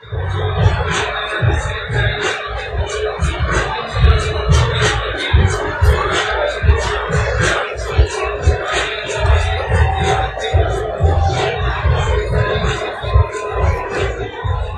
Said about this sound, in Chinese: 虽然现在已经一点钟了，但是其实戛纳还是很热闹。呃，除了海浪的声音，更多的是派对的声音。这一段派对就很响，要不这段我们先听听他们派对的声音。